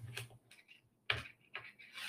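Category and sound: household object, clock ticking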